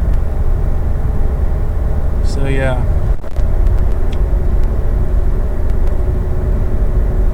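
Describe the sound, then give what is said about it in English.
A steady, heavy road rumble fills the cabin of a car moving in heavy traffic on the 520, with the hum of traffic all around. A voice speaks briefly over the constant low drone. “But uh, yeah, it's actually a lot of traffic out here.”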